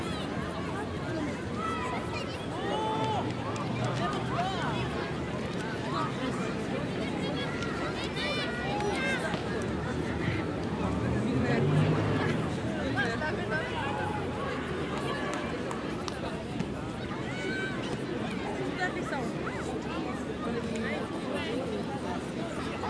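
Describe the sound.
Busy city beach ambience at the Plage des Catalans in Marseille: a steady bed of overlapping crowd chatter and indistinct voices, with a brief swell in loudness around the middle before settling back to a constant hubbub.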